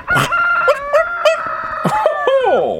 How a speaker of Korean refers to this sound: 심심한데 닭이나 괴롭혀야지.